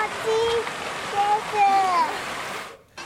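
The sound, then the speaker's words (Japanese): Steady rushing, splashing water fills the scene while children's high-pitched voices call and squeal over it as they bathe and play in the water at Odori Park in Sapporo on a hot day of 31.1°C, lively, before the sound cuts off abruptly near the end. “今日の札幌は最高気温31.1度を記録し大通公園では水浴びをする子どもでにぎわいました”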